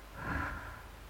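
A single long, airy exhale taken as a deep breath, breathy and slightly nasal, rises quickly and then trails off over about a second. It is soft, with no talking.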